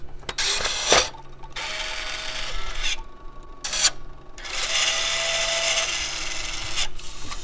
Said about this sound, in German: Der Pin wird vom Tape-Drive aus dem Band rausgezogen und wird im Tape Drive eingefädelt und zwar auf eine zusätzliche Spule